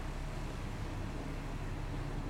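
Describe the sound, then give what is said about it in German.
A steady, low engine rumble from a tractor driving past outside holds at an even, moderate loudness throughout, with no voices over it. “kam da kurz den Trecker unter äh, lang.”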